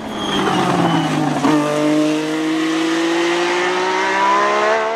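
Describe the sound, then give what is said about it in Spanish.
A Renault turbocharged Grand Prix racing car engine from the late 1970s revs hard, its power rising from 150 to 530 horsepower as the turbo engages, its high mechanical whine climbing through a gear change about a second and a half in, then holding a loud, steady drone with no voices. “Luego de su debut en el Gran Premio Británico del 77, Renault tuvo que corregir muchos problemas técnicos cuando se accionaba la turbina. El motor elevaba su potencia de 150 a 530 caballos.”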